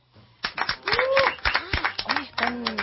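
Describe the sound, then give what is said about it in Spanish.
A small group in a studio claps steadily for a couple of seconds, with voices cheering and whooping over the clapping. “bastante copados los aplaudidores.”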